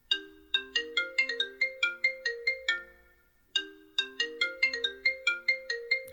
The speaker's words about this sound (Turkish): Neden bu telefon susmuyor bugün?